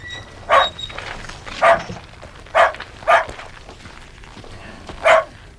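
dog barking

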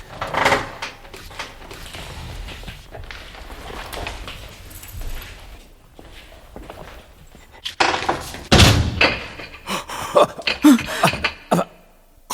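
door being opened

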